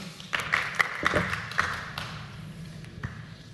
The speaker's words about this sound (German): Sie dürfen gleich mit Ihrem Applaus weitermachen, denn an dieser Stelle äh, möchte ich ganz, ganz herzlich danken unseren drei Referentinnen und Referenten,